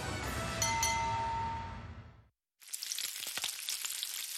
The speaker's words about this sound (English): Hear that? Sounds like sizzling bacon, right? Trust me, it looks like bacon too, only it's not. It's Johnsonville sausage strips. Strips of sausage in amazing flavors like maple and chorizo.